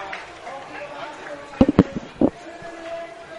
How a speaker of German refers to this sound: Sorry, das war mein Handy, das an das Mikrofon geknallt ist.